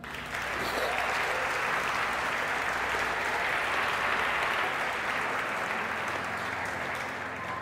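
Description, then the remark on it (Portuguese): An audience breaks into sustained applause for the Lord, a dense, steady wash of many hands clapping for several seconds at an even loudness, with no clear speech over it. “Aplauda o Senhor por isso aí.”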